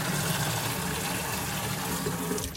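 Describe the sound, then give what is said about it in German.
Water pours steadily into a 10-litre watering can for watering a balcony, a continuous gushing rush like a tap filling it, with a faint rising pitch as it fills and a brief clunk at the end. “In die Gießkanne passen 10 Liter. Die brauche ich für meinen Balkon.”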